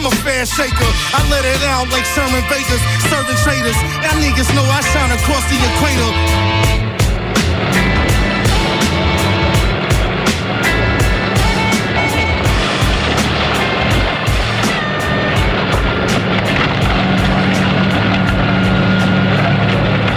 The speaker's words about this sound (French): Et sur le son des tractopelles, il est 23h34 sur les ondes de la plus rebelle des radios.